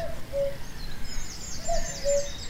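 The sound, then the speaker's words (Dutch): A common cuckoo calls twice, each call a soft two-note 'cuck-oo' at a steady pace, heard faintly over quiet outdoor background noise. “Nu, die koekoek is ook cultureel gezien een belangrijke vogel.”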